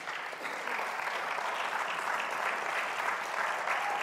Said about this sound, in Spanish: Yo le voy a pedir a mis amigos fuertes que, puedan pasar. Denle un fuerte aplauso a mis, a mis ayudantes.